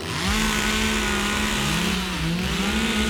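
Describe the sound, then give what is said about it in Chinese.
A large electric saw, used by workers, cuts into the marked trunk of a tall fir tree, a loud, steady motor whine with a buzzing drone whose pitch dips and rises slightly as it works, continuous throughout with no voices. “在它的树干上做了记号，便使劲的用大型的电动锯子开始锯了下去。”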